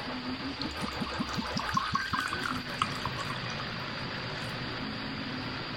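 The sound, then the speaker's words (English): A beverage pours steadily into a glass, a continuous gurgling splash with a few rhythmic glugs early on, then settling into a fizzy, even stream. “But uh, let me pour my beverage first and get ready and situated.”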